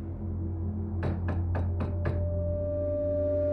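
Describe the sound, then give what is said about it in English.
Five quick, evenly spaced knocks on a front door at night, fairly soft, sounding over a steady low background hum, followed by quiet. “I wasn't asleep 15 minutes before I heard the faint knocking on the front door again.”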